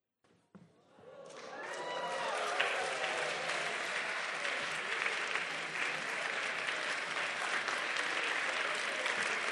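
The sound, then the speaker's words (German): A crowd at a church service bursts into applause after a brief thump, the clapping swelling within a second or two into a dense, steady roar that continues loudly to the end, with some whistle-like tones early on. “Ihr klatscht ja, es war wie beim Fernsehen, die klatschen immer.”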